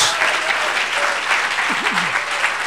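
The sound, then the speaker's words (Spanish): A church audience applauds the Lord in dense, steady clapping that fills the whole clip, loud and continuous, with a faint voice rising briefly through the clapping. “Ahora démosle un aplauso al Señor.”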